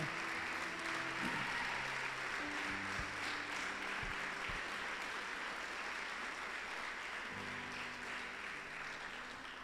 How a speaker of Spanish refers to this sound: A ver, dale ese aplauso bien fuerte al Señor.